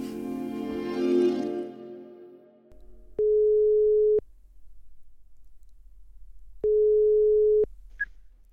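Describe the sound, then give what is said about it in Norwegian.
Two long, steady ringback tones of an outgoing phone call from Østlandsposten, each lasting about a second with a click at start and end, separated by a quiet pause over a faint line hum. “i Østlandsposten som ringer.”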